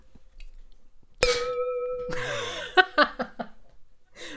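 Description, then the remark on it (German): Two glasses clink together, one holding more drink than the other, with a bright ringing tone that sustains and rings out clearly, followed by laughter and a few short vocal sounds. “man hört, ich habe noch mehr in meinem Glas.”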